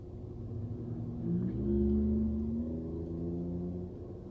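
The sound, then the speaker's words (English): A pickup truck loaded with flowers: its engine idles with a deep rumble, then revs up with a rising throaty growl before settling back to a steady drone, fairly loud, with no voices. “Anyway, I got a frickin' pickup truck full of flowers.”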